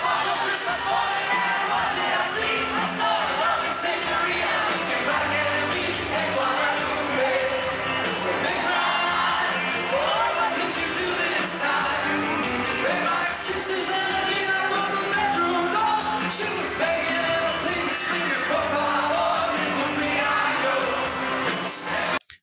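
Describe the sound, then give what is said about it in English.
A large concert crowd sings along loudly and continuously, voices blending into a dense, distorted roar with occasional cheers, captured on a muffled, low-quality cell phone recording. “But I, I played that because you can hear the crowd singing along, and that's sick.”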